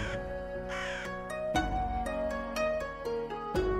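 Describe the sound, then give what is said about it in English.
A raven caws harshly a couple of times near the start, loud, over sustained musical tones that continue with soft struck notes afterward. “The raven speaks French. She soars through the midnight sky.”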